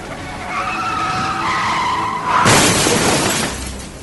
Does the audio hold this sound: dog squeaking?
no